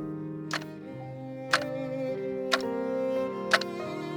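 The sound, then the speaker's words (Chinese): A clock ticks steadily, four crisp, sharp clicks spaced about a second apart, sounding over a soft, sustained musical backdrop of low held tones. “让人现在只剩下偶尔会想起来的记忆，还有滴答滴答时间溜过的声音。”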